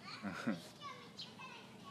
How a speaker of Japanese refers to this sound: すごい子供の声がした自転車乗ってるねすごい元気